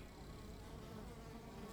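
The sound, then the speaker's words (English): A dense, steady drone of many honeybees, about 20,000, buzzing together around hive frames in the sunlight, a continuous hum with no pauses and no voices. “Their buzzing is in order to communicate.”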